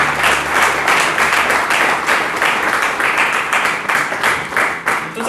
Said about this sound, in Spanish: ¿Alguien le puede dar un aplauso al Señor? Gracias.